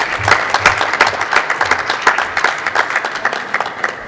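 Steady audience applause fills the whole stretch, a dense, even patter of many hands clapping at a lively, sustained level without any voices over it.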